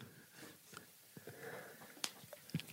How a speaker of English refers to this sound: are you sniffling? And, are you sti- stifling tears?